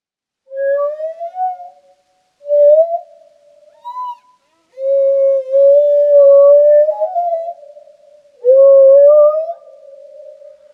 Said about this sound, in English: The songs, on the other hand, are longer and are made up of repeated units or phrases that are arranged into themes. And when multiple themes are then put into particular sequences and patterns, that creates the whale's song.